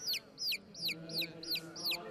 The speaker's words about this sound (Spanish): había un ruido que me molestaba. Era como un pío pío o algo así. Tal vez entró algún pájaro a la iglesia, me decía, no creo que sea el Espíritu Santo, con todo respeto.